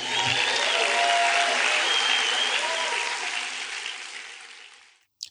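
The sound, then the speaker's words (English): A large audience at a live T. Harv Eker seminar applauds themselves, clapping steadily for about five seconds in a dense, bright wash of applause that holds strong and then tapers off, ending with a couple of brief clicks. “Give yourselves a round of applause for being here again.”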